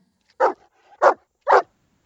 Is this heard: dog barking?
yes